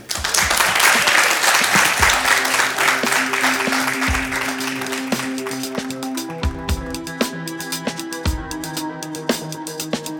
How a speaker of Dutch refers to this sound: Een applaus voor de twee.